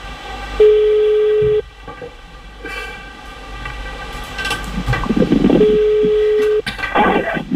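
A newly bought telephone, being tested, rings twice, each ring a steady electronic tone lasting about a second, separated by a few seconds of background noise; no one speaks.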